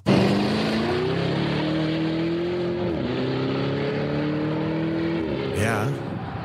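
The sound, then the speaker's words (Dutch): A Lamborghini Urus SUV with an Italian registration, being test-driven, revs loudly, its pitch climbing steadily through two gear shifts as the car accelerates, with no voices over it. “Zeker ook omdat Wouter de Lamborghini Urus test.”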